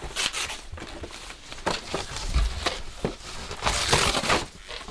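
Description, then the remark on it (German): Colorful gift wrapping paper, gift ribbons and packaging crinkle and rustle as presents are torn open and crumpled at Christmas gift-giving, in busy, irregular bursts, with sharp crackling handling noises and occasional tearing-like swishes, continuing steadily with no voices. “Ich höre schon, wie es knistert und knastert, wie die bunten Geschenkpapiere und Geschenkbänder und Verpackungen von iPods und Playstations und Flachbildschirmen, ja sogar von Büchern und selbstgestrickten Wollsocken, zerrissen, zerknüllt”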